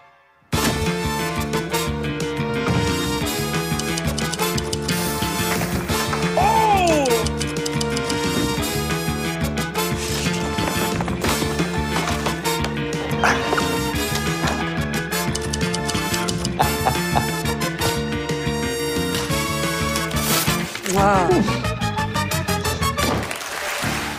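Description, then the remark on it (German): The intro theme tune of the TV show Taskmaster, written by Alex Horne and recorded by his band, plays on its own, dense and steady throughout, with layered sustained chords, a driving rhythm and occasional swooping pitch slides, ending in a brief flourish. “werde ich jetzt das Intro von Taskmaster einmal abspielen”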